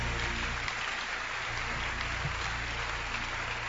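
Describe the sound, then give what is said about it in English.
A crowd claps their hands steadily and continuously, a dense wash of many hands over a low hum, with no one speaking. “Clap your hands.”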